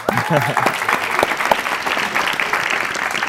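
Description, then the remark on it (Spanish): Steady audience applause fills the whole stretch, a dense wash of many hands clapping at an even loudness, with a few voices audible underneath at the start. “Un aplauso para eso.”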